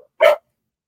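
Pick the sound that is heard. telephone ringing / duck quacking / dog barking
dog barking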